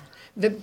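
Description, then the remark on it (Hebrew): A single short sneeze bursts out after a brief hush, a sharp breathy explosion with a voiced edge, moderately loud, fading quickly into quiet room tone. “לבריאות.”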